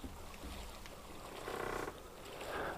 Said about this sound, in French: Le bateau tangue légèrement.